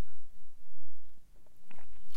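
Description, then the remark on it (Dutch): Someone takes a quick sip of a drink, with soft wet mouth clicks and a swallow over a low background hum; no one speaks. “Even een slokje drinken hoor.”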